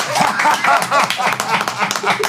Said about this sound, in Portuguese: Ó, primeiro eu quero bater palmas para uma das melhores resenhas da história do Charla Podcast